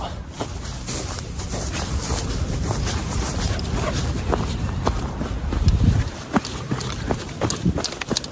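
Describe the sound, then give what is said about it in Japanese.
Footsteps crunch through frost needles on a walk in Sapporo, in a steady run of brittle, gritty crackles, each step a short crisp burst over a constant low rumble, with no talking. “ではまたお散歩続けますちょっと霜柱のところに来たんで雲音”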